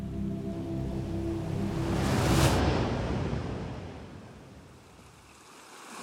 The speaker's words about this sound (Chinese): 海水碰到他的脚趾头，海浪一波又一波打上来，好像在说：“来啊，来这里！”